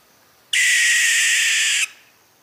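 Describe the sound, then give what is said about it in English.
A barn owl's harsh, hissing shriek rings out once, loud, holding steady for over a second before cutting off abruptly, with no voices around it. “it's the shriek of the barn owl.”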